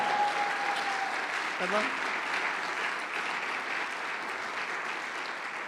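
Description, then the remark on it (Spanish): An audience at a live event applauds in a steady, dense wash of clapping that holds at a fairly even loudness throughout, with a brief whistle-like tone and a short shout poking through near the start. “¡Ajúa ¿eh? que se oiga el aplauso!”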